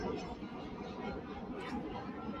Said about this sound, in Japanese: あ、今上が、上を飛行機が通ったのはちょっとうるさいかもしれない。真上を飛行機が通り抜けています。